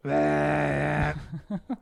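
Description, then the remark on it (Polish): A voice imitates the UVB-76 shortwave buzzer: one loud, steady, low buzzing drone held for about a second, followed by a few short breathy bursts like quiet laughter. “Tak, stacja radiowa na, na fali krótkofalowej, dokład, dokładnie na frekwencji 4625 kHz, mhm. która wysyła przez całą dobę jeden dźwięk 25 razy na minutę.”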